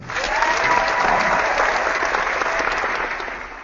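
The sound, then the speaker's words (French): Sustained applause from many hands, a dense steady clatter of claps that stays loud for a few seconds before tapering off slightly at the end, with no talking over it. “Attends, je m'applaudis si tu veux, voilà.”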